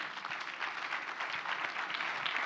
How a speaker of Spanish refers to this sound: Dale un fuerte aplauso al Señor.